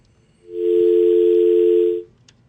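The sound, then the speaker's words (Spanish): A single loud, steady telephone line tone sounds for about a second and a half, then cuts off cleanly, like a phone call connecting. No one speaks. “Una pausita para tomar esa llamada.”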